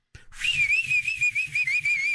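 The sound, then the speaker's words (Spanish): A chifle whistle blown in one long, shrill, steady tone that wavers slightly in pitch for about two seconds, with soft low thumping pulses underneath. “Hasta agarraba el chifle.”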